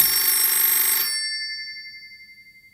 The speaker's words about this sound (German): Oh nee, ey, schon wieder Telefon. Was ist denn heute los? Warte mal. Ja, wolltest du das nicht stumm schalten? Ja, ich eigentlich schon.